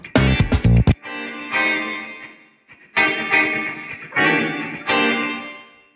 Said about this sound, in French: et, du coup, bah, si on écoute le, son réverbéré de, mon exemple.